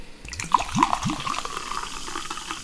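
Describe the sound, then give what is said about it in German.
A bottle of Elma apple-flavoured fizzy drink, shaken a lot while walking around, spurting open: a few quick bubbly gurgles with rising pitch, then a steady foamy fizzing hiss that carries on at moderate loudness, with no one talking. “Und das wollte schon aus der Flasche raus, weil wir es vorher beim, beim Rumspazieren so viel geschüttelt haben im mhm.”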